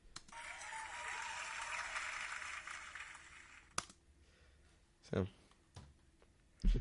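An audience applauds in a steady, dense wash of clapping for about four seconds, then it cuts off, followed by a few scattered thumps and knocks in near quiet.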